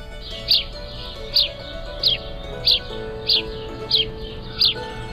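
A house sparrow (Passer domesticus) gives a monotonous series of seven evenly spaced chirps, repeating about every two-thirds of a second, moderately loud over a steady low background hum.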